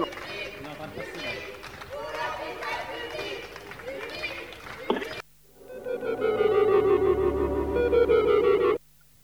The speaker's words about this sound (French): tu peux nous passer un petit fond d'une manif depuis des appartements. Là, c'est pas seulement applaudir l'hôpital public, mais c'est un peu plus.